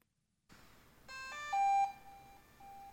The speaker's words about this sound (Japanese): え えー、ドローンってこんな音すんなおおすげえはい これがずっと続く